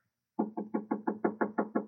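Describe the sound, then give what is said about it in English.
A soft, quick run of about nine evenly spaced knocks on a door, fairly quiet, with no voices around them, made as a knock-on-the-door sound effect during a rehearsal of a house scene. “Uh, why is the knock so soft?”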